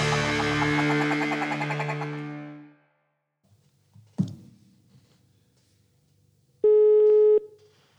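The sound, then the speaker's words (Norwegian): A telephone ringing tone heard while placing a call: a long buzzing ring that fades out, a quiet pause with a faint click, then a shorter steady tone. No one speaks. “Ok, men da, da tar vi og ringer Jørn, vi. Da ringer vi Jørn.”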